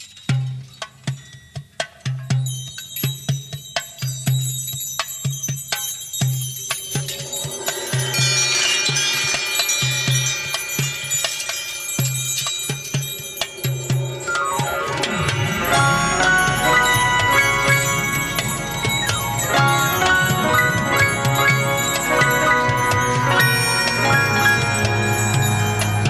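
Instrumental soundtrack music built on ringing bell tones over a pulsing low beat, swelling into a dense, loud orchestral texture in the second half. No one speaks.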